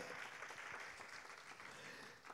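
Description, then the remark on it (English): An audience applauds together for Jesus in the afternoon, a dense, steady wash of many hands clapping at once, sustained without a break across the whole moment. “Come on, give Jesus a big round of applause this afternoon.”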